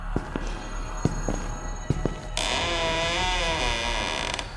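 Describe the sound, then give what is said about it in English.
A few sharp clicks and knocks, then a long, wavering creak as a door on stiff hinges is slowly pushed aside, loud, with no one speaking. “He slowly approached the dangling thing and shifted the door away to get a better look.”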